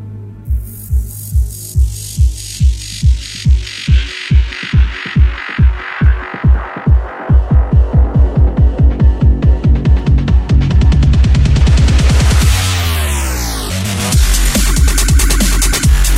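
A deep, throbbing bass-heavy music track pulses steadily, its low kicks speeding into a dense rhythmic drive with sweeping synth textures overhead. Loud, with no voices.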